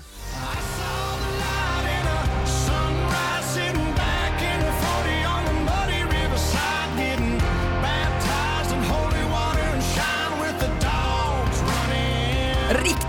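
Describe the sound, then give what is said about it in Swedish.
A country song topping the US charts plays loudly and steadily on Mix Megapol radio, with a sung lead vocal over a full band of twangy guitars, bass and a driving beat. “Väldigt bredbent country toppar i USA.”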